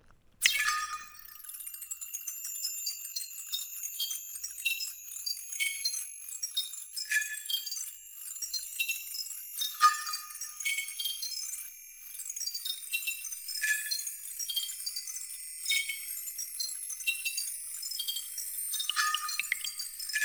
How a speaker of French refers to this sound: je vous propose d'écouter un extrait de la pièce Six synthèses de Yann Marèche